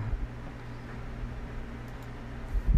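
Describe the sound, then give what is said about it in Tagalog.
A steady electric fan whirs, a constant low hum with a broad airy hiss, holding evenly throughout with a couple of soft thumps near the end. “sorry ha if may naririnig kayong may ingay na that is electric fan”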